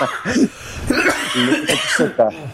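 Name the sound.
coughing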